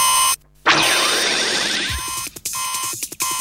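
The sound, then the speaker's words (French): A loud, chaotic burst of noise gives way to the shrill electronic ring of a red telephone, buzzing in short repeated bursts with brief gaps, with no one talking. “Il y a le téléphone rouge qui sonne.”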